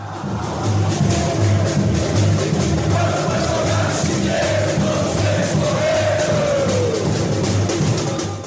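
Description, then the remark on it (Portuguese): Palmeiras football fans in Brazil chant together in a stadium, a dense wash of many voices singing a samba-style version of a song, the melody rising above, sustained and loud throughout, backed by a steady low rhythmic pulse like drumming. “Inclusive aqui no Brasil, onde a torcida do Palmeiras, por exemplo, fez uma versão abrasileirada mais puxada ali pro samba.”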